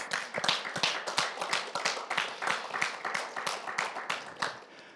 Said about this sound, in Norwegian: nå syns jeg du skal gi, få lov å gi deg sjøl en skikkelig stor klapp.